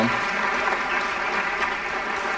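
Steady audience applause, a dense wash of many hands clapping at an even, fairly loud level throughout, with no voices standing out.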